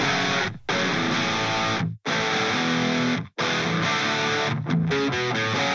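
A music track opens with loud, heavily distorted guitar-driven rock, punctuated by a few abrupt stop-start breaks where the sound cuts out briefly before crashing back in. No one speaks.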